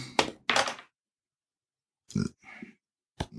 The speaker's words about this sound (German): Ich brauche jetzt eine neue Zufallszahl. Ich würfel wieder.